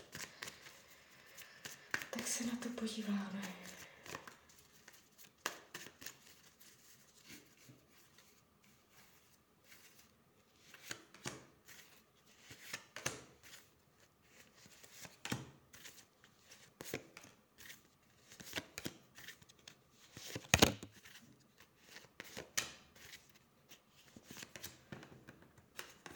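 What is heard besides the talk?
shuffling tarot cards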